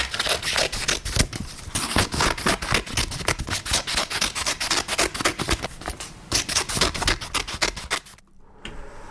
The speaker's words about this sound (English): The answer was cutting paper with the scissors. Cutting paper.